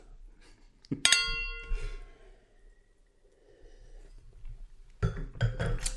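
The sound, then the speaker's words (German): Glasses clink together in a toast, one bright ringing strike whose tone lingers and fades over a second or so, followed later by some clatter and rustling. “Prost.”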